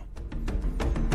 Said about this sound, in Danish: Og jeg har siddet og spillet et spil, hele den her ferie, der hedder Halo, som er sådan et alien action-spil på en gammel Xbox. Og det vil sige, at jeg har hørt temasangen til Halo stort set på repeat, og den lyder sådan her.